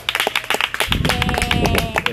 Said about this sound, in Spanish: Y de verdad, bueno, cerrar con un aplauso para ustedes, felicitarlos de verdad